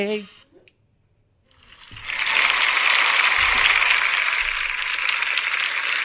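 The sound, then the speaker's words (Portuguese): After a brief voice at the start and a short pause, a recorded burst of applause swells in and continues steadily as dense, crackling clapping from a large crowd until the end. “Era, era o, o, áudio de aplausos.”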